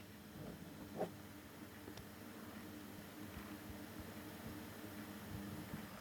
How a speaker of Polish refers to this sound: Teraz się nagrywa. O, może spróbuję szum mechanizmu nagrać.